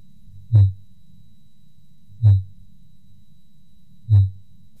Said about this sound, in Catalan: Els orquals utilitzen aquests sons per comunicar-se entre si, per localitzar les seves preses. Com acabeu d'escoltar, el seu cant consisteix en seqüències de sons a baixa freqüència que poden ser escoltats a grans distàncies.